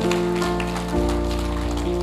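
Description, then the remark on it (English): The Impact Church audience gives Jesus a big round of applause, a dense wash of clapping that holds throughout, while sustained keyboard chords play underneath and shift bass notes a couple of times. “Impact Church, can we give Jesus a big round of applause?”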